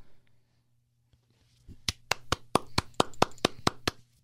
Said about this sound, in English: I'm standing. I'm clapping.